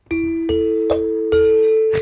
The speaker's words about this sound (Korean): 딩동댕 다시 한 번만요.